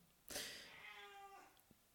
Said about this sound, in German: Das war der Kater meiner Eltern.